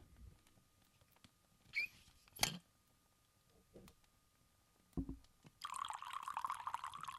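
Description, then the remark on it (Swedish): A few soft knocks and clicks of handling, then a steady stream of coffee poured from a black thermos, a hissing gurgle lasting the final second and a half. “Det är kaffe, jag lovar! I en svart och rivit termos.”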